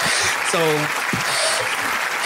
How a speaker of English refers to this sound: That's round of applause for that, man.